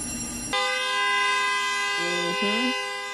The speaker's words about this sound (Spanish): No dejes de tocar el claxon hasta que llegue la ley o un abogado o me abran la puerta estos cobardes.